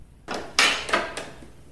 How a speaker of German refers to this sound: Die Tür öffnet sich nach einigen Sekunden